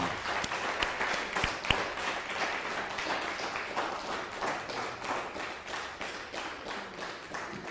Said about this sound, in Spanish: uno, dos, tres. Shabbat, shalom, fuerte aplauso.